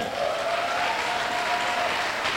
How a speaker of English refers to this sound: Give the Lord a mighty clap.